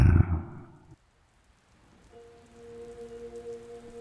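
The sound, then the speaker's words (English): A brief low rumble opens, then a soft, steady patter of light rain drizzling on the street continues, joined midway by a faint, sustained humming drone. “I step into the drizzle, cross the street,”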